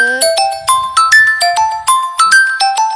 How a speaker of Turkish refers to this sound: Telefonum çalıyor duyduğunuz gibi.